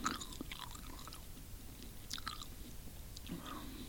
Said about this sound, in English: So this is a flavour of that car mint licorice. now, when you chew it, all right, I want you do it as disgusting as possible into the mic, like open mouth.